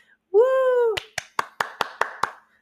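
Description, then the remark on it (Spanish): A sustained, held vocal note, then seven sharp hand claps in a steady, even rhythm, each crisp and fairly loud, like one person applauding alone. “Muchos aplausos para mí.”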